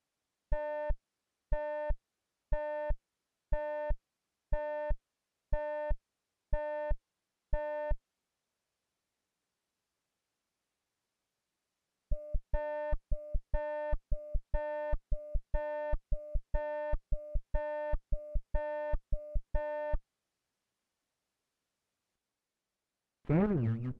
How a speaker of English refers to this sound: First you hear several repetitions of the full rich tone. Then the capturing tone is alternated with it, with gaps between them. A weak, high-pitched residual is heard.